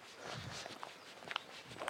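Quiet footsteps of a person walking briskly during an exercise routine, with a few soft, evenly spaced steps against a faint background hiss, growing slightly louder toward the end.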